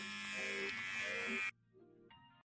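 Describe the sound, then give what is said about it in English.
A Manscaped electric grooming trimmer buzzes loudly and steadily for about a second and a half, then cuts off, leaving a fainter, lower hum that lingers briefly before stopping. “I hope you don't know I'm about to use his Manscaped.”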